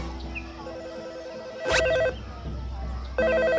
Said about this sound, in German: Janette, dein Telefon klingelt.